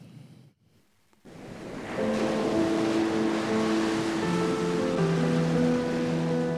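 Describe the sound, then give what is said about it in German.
Surf of the Indian Ocean around Sri Lanka rushes in after a brief quiet start, a steady, loud wash of breaking waves that continues throughout, with sustained musical tones fading in beneath it. “Sri Lanka, umgeben vom Meer.”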